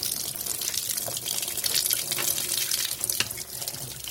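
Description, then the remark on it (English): Hot water heated by solar panels pours steadily from a tap in a continuous hiss and splash, like a sink being filled, with no voices, at a solar water-heating installation site in Kingsburgh West, South Africa. “stick your hand under there, you can feel how hot that water is.”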